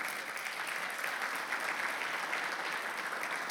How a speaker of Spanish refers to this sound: Gloria al Señor. Un aplauso fuerte para Él.